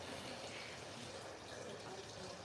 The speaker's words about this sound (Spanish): además se oye una fuentecita toda madre que hay ahí atrás, que te relaja.